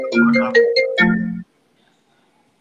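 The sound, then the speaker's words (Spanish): A phone ringtone for an incoming call from the ONEFA plays a short melodic burst of bright, tonal notes, fairly loud, then cuts off into silence with a faint blip at the end. “Ya nos llaman de la ONEFA.”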